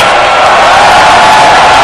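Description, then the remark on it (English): A large church audience claps and shouts together, giving Jesus a shout of praise, in a loud, sustained roar of cheering and applause filling the whole moment, with no individual voice standing out. “Why don't you put your hands together and give Jesus a shout?”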